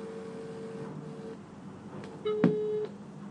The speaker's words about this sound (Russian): Так. Ага. Гудки идут.